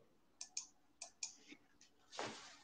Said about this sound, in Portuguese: Vou clicar aqui no primeiro.